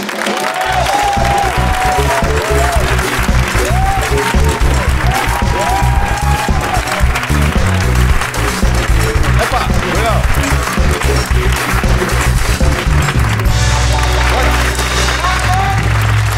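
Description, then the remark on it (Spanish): A TV studio audience gives loud, sustained applause welcoming founder Oscar Camps and actor Eduard Fernández. Dense, steady clapping fills the whole stretch, with a band playing underneath and a few voices cutting through the crowd noise. “Este aplauso es para ustedes que han venido por separado al programa varias veces, pero nunca juntos.”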